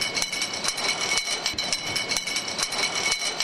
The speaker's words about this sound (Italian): Eh, Cosa lo determina? Tutte le macchine di formazione delle bottiglie, tutti i movimenti sono tutti movimenti pneumatici, per cui tutti gli sfiati che ci sono provano questo rumore.